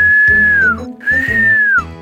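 A person whistles to call up the wind, following an old sailors' custom: two long, steady notes, each sliding downward at the end, with a short pause between them and a low background rumble underneath.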